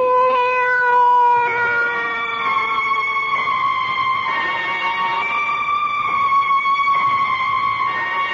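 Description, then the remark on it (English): A cat yowls in a long, drawn-out, unbroken meow that wavers slightly in pitch, loud, with no talking over it. “So tell me, Cat, tell me what to do.”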